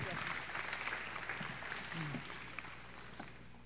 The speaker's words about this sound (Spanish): Tenés un aplauso, por favor, bien fuerte. Bienvenida.